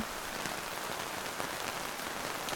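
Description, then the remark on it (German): Heavy rain pours steadily onto a street in May, a dense, continuous hiss with scattered sharper drop impacts, fairly loud, with no voices; the rainwater rushes along the kerb like little rapids and collects in large puddles at the end of the street. “Es regnet in Strömen und wie kleine Stromschnellen rauscht das Regenwasser an der Bordsteinkante entlang, um sich am Ende der Straße in großen Pfützen zu sammeln.”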